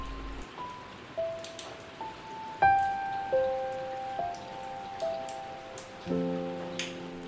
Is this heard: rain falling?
yes